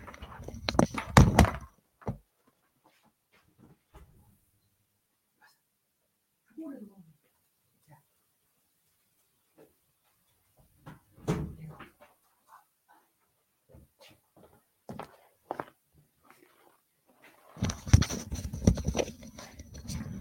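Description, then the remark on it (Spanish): A door is opened to let in a dog that was knocking at it, with a loud clunk at the start, another sharp thump midway, and a longer burst of clattering and rustling at the end, separated by quiet gaps. “Eh, que lea también, porque tengo que abrir la puerta a mi perro.”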